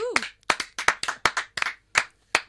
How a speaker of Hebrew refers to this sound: הלהקה מתבקשים למחוא כפיים בהיסטריה.